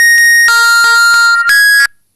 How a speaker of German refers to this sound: Okay, mein Timer ist einfach abgelaufen. Oh, das klang ja total ekelhaft.